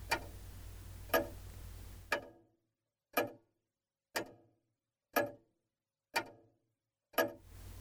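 A clock ticks steadily, about once per second, each tick crisp with a short ringing tail. A faint hiss underlies the first two ticks, then the rest stand alone in silence.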